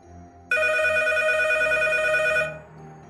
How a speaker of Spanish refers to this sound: Acuesta a los pequeños en el piso de arriba y cuando apenas se ha sentado delante de la televisión, suena el teléfono.